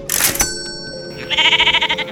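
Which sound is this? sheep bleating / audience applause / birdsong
sheep bleating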